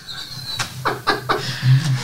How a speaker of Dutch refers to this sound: En ik heb een speciaal cadeautje voor je die je mag uitpakken. Oh, oké. Voor de camera.